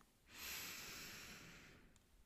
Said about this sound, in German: lade ich dich noch einmal herzlich dazu ein, seufzend zu atmen. Und zwar dreimal hintereinander. Atme dafür durch die Nase ein.